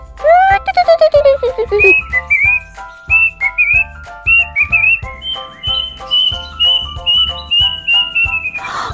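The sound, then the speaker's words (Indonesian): A person whistles an imitation of blackbird song: a string of bright, sliding, warbling phrases with brief pauses, fairly loud, over a steady, soft, low rhythmic beat. “Burung tit biru melakukan akrobat dan burung hitam menyanyi solo.”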